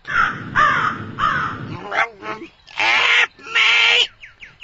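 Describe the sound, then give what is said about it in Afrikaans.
A crow caws loudly while kicking inside a sack, a run of about five harsh, raspy squawks, the later ones longer and more strained, with scuffling noises between them. “kraai skop en skree in die sak wat om jat die reus se skouer hang”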